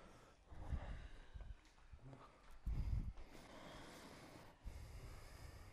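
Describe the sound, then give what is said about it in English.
Forceful exhales through the nose with the mouth kept closed, three sharp snort-like bursts about two seconds apart, breathy over a soft background hiss, with no talking. “Breathe out through the nose.”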